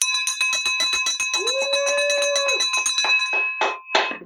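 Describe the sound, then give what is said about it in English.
A makeshift victory bell, a handheld bell of the kind teachers used at recess, is shaken rapidly and loudly, its bright metallic clangs running together in a fast, continuous ringing for several seconds before ending with a few final strokes. “I had a makeshift bell. Like this is one of those ones that are handheld that this like the teachers used to use out at recess.”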